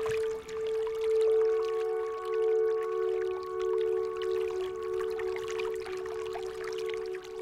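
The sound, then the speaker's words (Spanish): Water pours and flows steadily for several seconds, a continuous rushing wash with a sustained resonant hum underneath and small splashy flickers throughout, with no voices. “El sol y el agua.”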